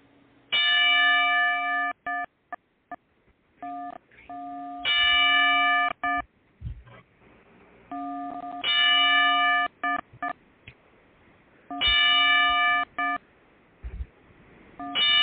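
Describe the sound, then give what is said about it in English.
A bell is struck ten times at slow, spaced intervals as a ten-bell salute in memory of wrestler Shannon Spruill (Daffney), each loud ring hanging briefly before fading, with quieter taps in between and no voices. “Um, since ten bell salutes for for you.”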